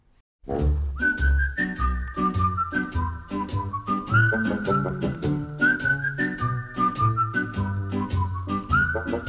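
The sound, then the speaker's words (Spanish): A clear, prominent whistled melody floats over a bouncy pop backing of bass, drums and rhythmic chords, the tune gliding steadily through a cheerful phrase. “dos compositores que consiguieron dos canciones seguidas y además las dos canciones con silbido incluido.”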